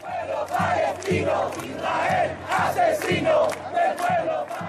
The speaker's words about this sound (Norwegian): Morder Morder! roper tusener av mennesker som har samlet seg foran den israelske ambassaden i Chiles hovedstad Santiago.